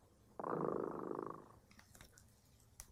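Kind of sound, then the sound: animal, cat purring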